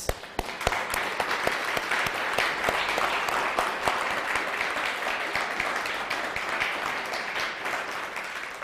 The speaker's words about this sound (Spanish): Ahora una fuerte ovación para el bendito sea. Uno, dos, tres.